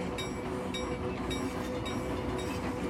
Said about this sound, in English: The vibrations under you are strong, yet soothing. They even out into a relaxing hum as the trains reached a safe and steady speed for a long journey.